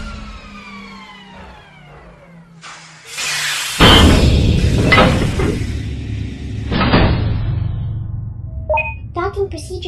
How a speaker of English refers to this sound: We're safely docked in Space City. Thank you, Winnie. I think we figured that out when we heard the loud hissy thump sound.